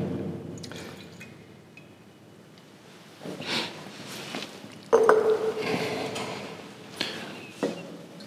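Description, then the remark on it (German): Leftover tasting wine is poured back into a barrel, a couple of short splashing, gurgling bursts with a few drips and light knocks, no talking. “Ja, kannst du mir den Rest gerade wieder reingeben?”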